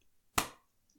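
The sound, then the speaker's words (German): A coin is flipped and caught, heard as one sharp, slap-like click that rings out briefly before quiet returns. No one speaks. “Ich werfe die Münze. Jetzt muss ich auch fangen.”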